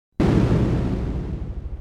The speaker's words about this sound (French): mon premier contrat se passe dans une mine à Montréal. Alors, les premiers dynamitages, je voulais voir comment ça se passait. J'étais descendu tout près où les mineurs sortirent quand ils font l'explosion. Et c'est spécial. Euh, d'abord, le bruit,